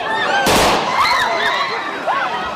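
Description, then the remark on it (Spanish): A single loud gunshot, fired into the air at a train station in Kyiv, Ukraine, cracks out near the start, ringing briefly over a tense crowd of thousands of Ukrainians trying to board trains, whose agitated shouts and raised voices continue throughout. “disparos al aire fueron necesarios para calmar a los miles de ucranianos que intentaban abordar hacia un destino nuevo y desconocido, ahora como exiliados.”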